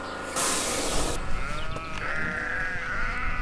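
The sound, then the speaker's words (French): Large, all-white, hornless Lacaune ewes with big ears, weighing 75-80 kg as adults, bleat in wavering, overlapping cries, following a brief burst of broad hissing noise at the start. Nobody speaks. “Euh, c'est des brebis qui font adultes 75-80 kg.”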